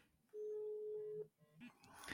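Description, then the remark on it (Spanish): A telephone ringback tone plays while a call is placed: one steady, clear electronic beep lasting about a second. It is followed by faint rustling and a brief burst of noise. “Aquí estamos llamando.”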